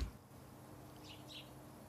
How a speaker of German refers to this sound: Also ich höre Vogelgezwitscher